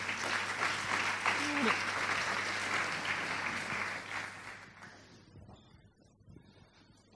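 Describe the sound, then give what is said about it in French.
An audience claps on stage to welcome Audrey Pulvar, president of the Fondation pour la Nature et l'Homme, and Laurent Boillot, CEO of Guerlain, at a climate change talk. The applause is a dense, continuous wash that holds for about five seconds, then thins out and fades to scattered claps. “Vos applaudissements.”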